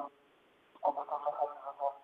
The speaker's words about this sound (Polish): Panie ministrze, proszę dać telefon bliżej twarzy, bo nam pan znika.